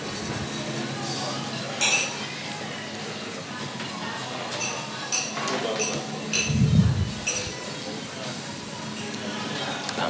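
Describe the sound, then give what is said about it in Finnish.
Dishes clink and clatter as if falling over in a kitchen, with scattered sharp metallic and ceramic knocks over a steady background hum, one heavier thud of crockery near the middle. “Keittiöstä kuuluu vai jotain astioiden kaatumista.”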